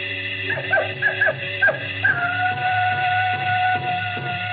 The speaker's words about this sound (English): The howl of the jackal in the distance,